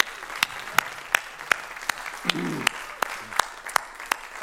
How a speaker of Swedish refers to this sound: Ska vi ge de här ungdomarna en härlig applåd?